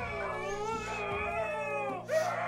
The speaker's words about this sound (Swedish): Ut på gården står det ytterligare några hundar och skäller just nu liksom.